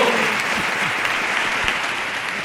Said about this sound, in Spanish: Así que, por favor, un fuerte aplauso.